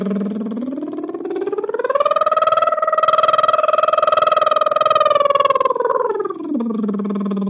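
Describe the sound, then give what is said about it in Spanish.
A single voiced lip trill as a voice warm-up, blowing air through closed lips: a steady, fluttering lip buzz carrying a sung tone that slides upward, holds a high pitch for several seconds, then glides back down. No talking. “Entonces, soplando, como cuando éramos niños, soplando aire a través de los labios, los labios cerrados.”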